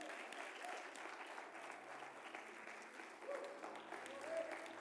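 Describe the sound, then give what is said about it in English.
Steady applause from a church audience giving the Lord a hand clap of praise, a dense continuous wash of many hands clapping at a moderate, even level for several seconds, with faint voices mixed in. “Get the Lord a hand clap of praise.”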